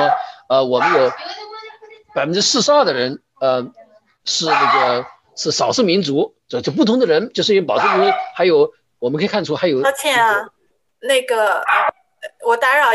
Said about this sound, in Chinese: 那个背后有谁没有静音的？麻烦您静音一下，我们老听见狗叫了，谢谢。